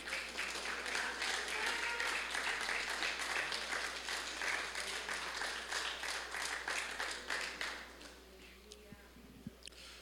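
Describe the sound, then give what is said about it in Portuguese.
An audience stands and applauds Jesus together in steady, dense clapping for about eight seconds, then the applause fades out, leaving a few scattered claps and quiet room tone. “Vamos ficar em pé, vamos aplaudir Jesus, ele é lindo, maravilhoso.”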